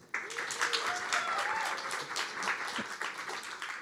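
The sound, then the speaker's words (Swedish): An audience applauds steadily as a speaker is introduced, a dense wash of many hands clapping at moderate volume for several seconds, with a faint voice or two murmuring underneath. “Nog ska du ha en applåd.”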